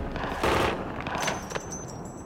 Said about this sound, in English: The dog in the truck is barking wildly, but his warning is soon drowned out by the hailstorm of .45 caliber bullets. The seven gang members are floored instantly, but the gunmen don't stop until their magazines click empty.